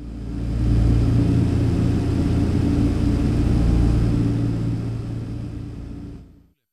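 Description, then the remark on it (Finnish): A steady, heavy propeller-engine drone inside a DC-3 airliner cabin, with deep throbbing low tones and a rough rumble that holds constant for several seconds before cutting off. No one speaks. “Kone tärisee ihan eri tavalla kuin moderni suihkukone ja sen liikehdinnässä on jotain no miten sitä nyt kuvailisi?”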